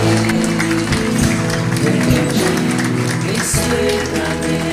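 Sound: audience applauding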